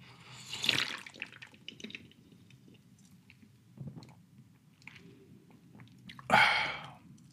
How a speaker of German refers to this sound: Ich trink, soll ich einen Schluck aus der Dose nehmen? Ja. Einen Schluck aus der Dose.